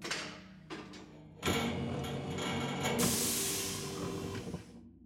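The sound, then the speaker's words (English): An airlock door on a docked ship opens with a mechanical clunk, a steady motorized hum, then a loud rush of hissing air that fades out. Prominent, with no voices. “Okay, I'm opening our side of the airlock.”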